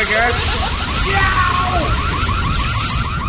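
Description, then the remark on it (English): A machine shorting out and malfunctioning because of a cell phone: loud, continuous electrical buzzing with a steady high-pitched hiss, rapid warbling chirps and swooping electronic whines, chaotic throughout. “Married man, your cell phone is shorting out the machine.”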